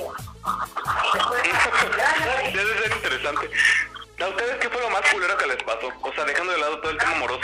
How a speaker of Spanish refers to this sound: No, ahí está pasando la señora de los fierros viejos por madre. A ver si ahorita se escucha.